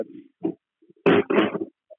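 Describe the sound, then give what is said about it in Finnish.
A dog makes a few short grunting, whiny noises, building to two louder, rougher bursts near the end, with no one talking. “oli vähän tota, koiraa, niin tota, vähän säätä, mun pakko katsoa tuossa.”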